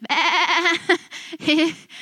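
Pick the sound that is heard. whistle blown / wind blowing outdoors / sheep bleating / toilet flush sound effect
sheep bleating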